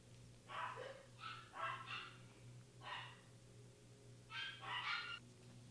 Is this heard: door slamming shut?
no